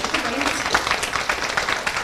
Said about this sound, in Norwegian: Det er helt enig. Det syns jeg vi skal klappe litt for.